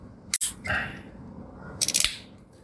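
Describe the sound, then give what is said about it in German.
A beer bottle is pried open: a sharp metallic click, a brief fizzy hiss, then a short cluster of clinking, rattling sounds as the cap comes free. No one speaks. “Nachdem der Soundcheck passt hat, mache ich jetzt mein Bier auf.”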